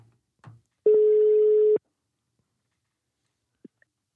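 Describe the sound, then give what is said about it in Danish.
A single steady telephone ringing tone sounds for about a second as a call is placed to a swine veterinarian, preceded by faint clicks and followed by quiet silence with a couple of small clicks near the end. “Jamen, øh, vi prøver lige at ringe op”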